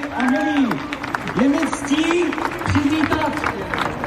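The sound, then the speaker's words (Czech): A large outdoor crowd in Prague's Old Town Square claps steadily and densely while scattered voices cheer and shout over the applause, welcoming Sviatlana Tsikhanouskaya; the sound is sustained and lively throughout. “To krásne sa tam tlieskalo, pokrikovalo, Ľudia sa tešili, davy na staromestskom námestí vítajú Svetlanu Cichanovskú a ona si to užívá, nás tam usmievá.”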